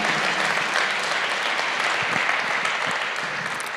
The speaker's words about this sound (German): die Tänzer, Tänzerinnen, Maler und Malerinnen, gebt denen doch auch mal einen Applaus, vielen Dank dafür.